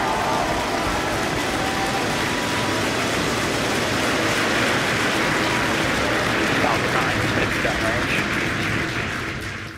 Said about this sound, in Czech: 18. ledna odstartovala z rampy 39A raketa Falcon 9 s kosmickou lodí Crew Dragon.